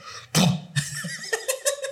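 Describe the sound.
A voice imitates a wet fart: one abrupt, loud, breathy burst, then a short run of bubbly, sputtering pulses trailing off over about a second and a half.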